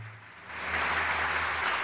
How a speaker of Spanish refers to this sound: Ah, le mando un aplauso, un abrazo.